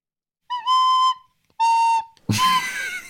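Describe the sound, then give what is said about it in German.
A father plays a few held notes of a Christmas carol on a recorder-like wind instrument: two clear, steady tones with a short gap, then a louder, breathier note. Fairly loud, with no voices. “Leute, oh, ich hätte sogar die Zweitstimme zu leise rieselt Also ich finde, also äh, ja, Papa, spiel bitte beide Stimmen gleichzeitig.”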